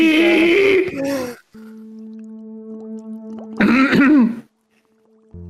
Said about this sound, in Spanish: Ese problema que tienes en la voz. Esa carraspera es que te está cambiando la voz.